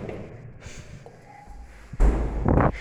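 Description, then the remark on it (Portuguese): A door swings shut with a heavy thud, followed moments later by a brief rustling, scraping burst; the rest is quiet background noise with no talking. “Tá fechando a porta.”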